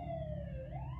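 An emergency siren wails steadily outside, heard from a bedroom, its pitch sliding slowly down and then rising again over a low traffic rumble, with no one speaking.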